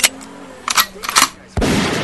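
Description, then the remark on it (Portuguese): Several sharp gunshot bursts, fired into the air, crack out at uneven intervals, followed by a loud, sustained stretch of rapid fire that continues to the end. “Tô tentando dar tiro pro alto e não consigo atirar?”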